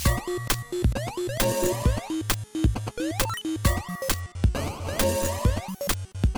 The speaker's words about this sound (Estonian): nüüd saab džingli panna.